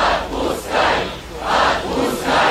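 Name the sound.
rally crowd chanting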